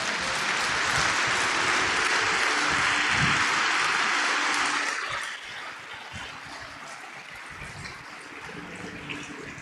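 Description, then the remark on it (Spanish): An audience claps together in praise of God in a dense, steady wave of applause for about five seconds, then the clapping thins into a quieter, lingering patter. No one speaks. “Denle un aplauso a ese Dios hermoso.”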